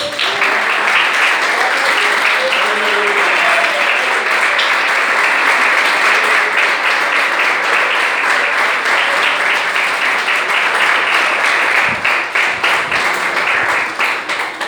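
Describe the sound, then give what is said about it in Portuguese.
A church audience applauds for Jesus in a loud, sustained burst of dense clapping lasting about twelve seconds, with faint voices underneath, before the applause starts to thin out near the end. “Pode aplaudir Jesus.”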